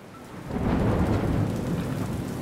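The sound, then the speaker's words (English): Steady, heavy rain pours down with a low rumble of thunder underneath, swelling in after a quiet start and holding a dense, continuous hiss throughout, with no voices. “I hate rainy days.”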